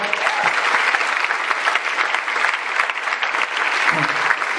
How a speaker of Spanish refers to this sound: se rajó, se rajó, Platino, para quien pido un super aplauso,